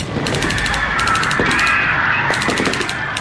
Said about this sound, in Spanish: La Guardia Nacional ametralló a los activistas y a los estudiantes.